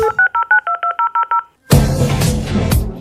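A quick run of about ten touch-tone dial beeps in steady rhythm, a brief pause, then a loud burst of harsh modem handshake screeching and hissing typical of a dial-up internet connection.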